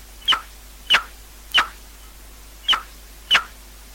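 A male common noctule bat's mating call, made in autumn to seek females: six short, sharp high-pitched chirps at roughly even intervals, each a brief piercing burst with quiet gaps between, no voices present.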